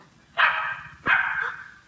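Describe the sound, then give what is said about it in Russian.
A puppy behind a door gives two short, high-pitched barks about half a second apart, fairly loud, with nothing else in the background. “Это собака.”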